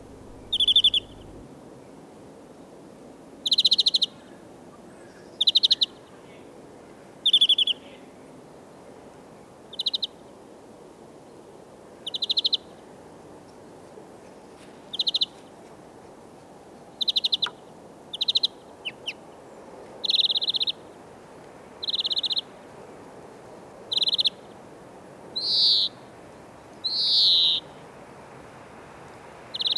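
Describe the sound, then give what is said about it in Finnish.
A male greenfinch sings its twittering, wheezing song in short, bright bursts repeated every couple of seconds, clear over quiet background hiss, with no voices. “Pesimishalunsa koiras ilmaisee kauniilla, visertelevällä ja ryystäilyjä sisältävällä laulullaan, jota on jo tänäkin vuonna taas saatu kuulla.”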